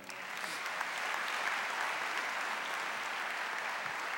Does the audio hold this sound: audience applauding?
yes